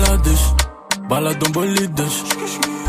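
A music track kicks in on the radio station Mauve: a deep bass swell briefly drops out, then a steady beat of sharp drum hits enters with layered melodic lines, loud.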